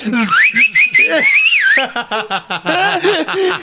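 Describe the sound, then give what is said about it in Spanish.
A few short, wavering whistles run together in quick succession for about a second and a half, clear, then people start talking. “No es un chiflido largo, sino son varios.”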